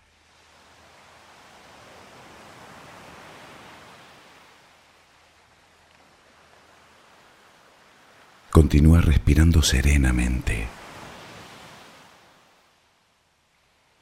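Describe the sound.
Soft, steady wash of sea waves swelling and receding as a low background hiss, with a calm voice briefly giving guided breathing and relaxation instructions for sleep partway through before the surf fades out.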